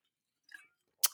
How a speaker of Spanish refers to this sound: un pequeño sorbito para refrescar esta garganta.